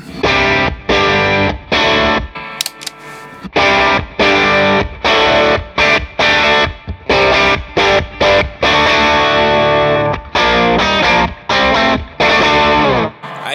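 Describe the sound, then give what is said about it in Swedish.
A heavily distorted electric guitar plays a chugging riff through a new effects pedal, with loud, choppy bursts separated by brief stops and a bright, saturated, buzzing tone throughout. No one speaks. “Nu är det nya. Samma riff.”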